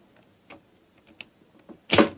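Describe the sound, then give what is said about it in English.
A skeleton key scrapes and clicks softly in an old door lock a few times, then the bolt gives with a louder metallic clunk at the end. No voices. “Is the, is the door locked? Yes, but I think a skeleton key will do the trick.”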